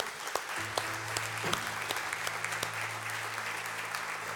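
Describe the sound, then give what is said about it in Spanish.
Sustained audience applause given in praise to the Lord, a dense crackle of many hands clapping steadily throughout, with a low hum underneath and occasional sharper claps standing out. “Dale un buen aplauso de alabanza al Señor.”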